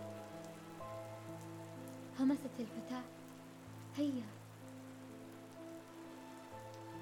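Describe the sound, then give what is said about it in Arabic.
Steady, soft cold rain patters continuously throughout, a dense hiss of falling drops. A quiet voice speaks briefly twice over it, and low sustained tones sit beneath the rain. “ساروا في الممر ببطء على صوت المطر البارد”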